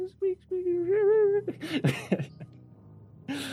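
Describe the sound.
A human voice imitates newborn puppies whimpering: a few short, high squeaks and a wavering whine, then breathy, noisy yelps, fairly close and moderately loud, with no words spoken.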